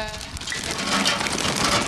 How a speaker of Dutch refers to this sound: patatjes gaan eh, de frituur in.